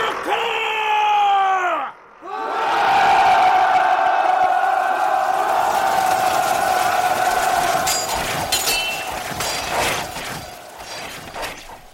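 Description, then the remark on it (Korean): A mass of Joseon government soldiers led by Yi Yun-gyeong bellow a battle cry as they charge the Japanese raiders besieging Yeongam fortress, in the tenth year of King Myeongjong. A loud sustained roar of many voices rises after a brief pause and rolls on, with scattered sharper yells and clatter. “이윤경 등이 끄는 조선의 관군들이 영암성을 포위하고 있던 외인들을 향해 공격을 개시합니다.”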